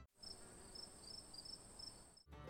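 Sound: cricket chirping sound effect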